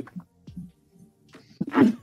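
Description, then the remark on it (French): A single loud sneeze bursts out at the end, preceded by a few short, catching inhalations as it builds. “Ah je vais éternuer.”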